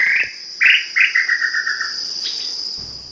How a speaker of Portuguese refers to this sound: o canto também às vezes pode ser confundido e porque é muito, é uma sequência, assim, um trinado, né, uma escala descendente do canto. Vamos ouvir então os dois, mas para não confundir também o ouvinte, vamos ouvir primeiro o Inhambu Xintan.